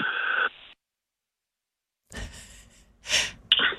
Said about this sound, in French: Euh... par je vais tousser.